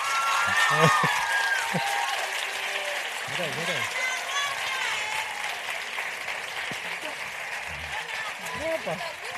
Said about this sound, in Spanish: Esto se nos puede alargar mucho, como tengamos que escuchar todos los aplausos y todos los guapo, guapo, guapa, guapa.